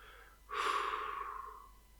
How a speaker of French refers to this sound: Premier point, vous respirez profondément avec votre ventre. Donc vous inspirez durant 2 à 3 secondes par le nez et vous expirez durant 5 à 6 secondes par la bouche.